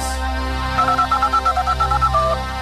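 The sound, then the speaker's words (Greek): A ringtone of an incoming phone call chirps in quick, regular electronic pulses, about a dozen short tonal beeps in a steady warbling rhythm over a low background hum, clear. “το πιο γρήγορο τηλεφώνημα τώρα. Ανοίγω τι γραμμέ.”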